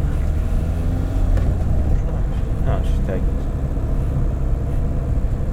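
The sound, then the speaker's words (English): Steady, loud low rumble of a car driving, heard from inside the cabin, droning continuously with road and engine noise, with some faint indistinct voice mixed underneath. “Um, like I said, I don't know if you can hear me over the noise of the car.”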